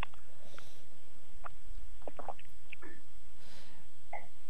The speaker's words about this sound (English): Yeah, no, I, I, heard you taking a sip, so I was just waiting.